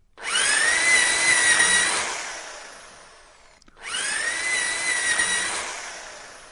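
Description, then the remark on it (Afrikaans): A power drill whines loudly through two bursts as it drills two holes into a wall for screws, the first winding down before a brief pause, then the second starting up again at full speed as it bores into the hard surface. “Sy druk haar ore toe toe hy twee gate boor.”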